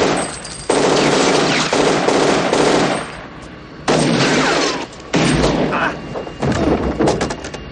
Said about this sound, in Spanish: Nick le dispara. Liesel se defiende con una ametralladora. Ambos bandos se esconden. De pronto disparan a Nick desde el avión. Nick devuelve el ataque y en un intercambio de balas derriba al piloto.